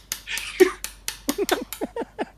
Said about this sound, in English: it only took like one or two hits, but you can hear it. And I'm using a, a metal nail file and a knife.